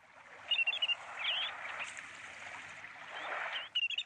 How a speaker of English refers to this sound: coincidentally, Morning Report's bird of the day on Tuesday was the wandering tattler